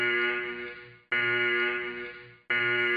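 A loud alarm rings in long, buzzing, harmonically rich bursts, each about a second and a half and fading slightly before the next one starts abruptly. There is no talking.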